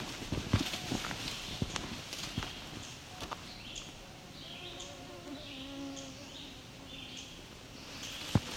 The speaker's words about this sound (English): Okay, sounds to be an oven bird